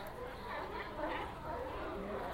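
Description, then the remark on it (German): A dense, continuous chorus of harbor seals calling at a pier down in the middle of a city, overlapping moans and grunts blending into a steady babble at moderate volume, with no clear pauses. “Seehunde, ja. Die sind an einem Anleger unten in der Stadt.”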